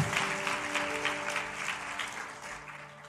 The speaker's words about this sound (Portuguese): aplauda mais é para Deus, não é para mim.